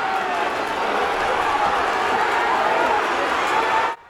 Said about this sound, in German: Und dann wartet alles gespannt. Der Start. 25.000 Zuschauer aus dem Häuschen.